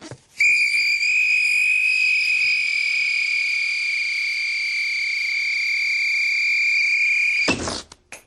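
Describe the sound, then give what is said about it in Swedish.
A balloon deflates through a whistle, giving one long, steady, shrill whistling tone for about seven seconds that ends abruptly in a short airy sputter. “Så trär man över ballongen här över visselpipan på här.”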